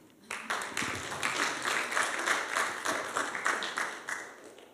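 A crowd breaks into applause that starts abruptly and continues steadily, a dense, crackling wash of many hands clapping at moderate loudness, easing slightly toward the end.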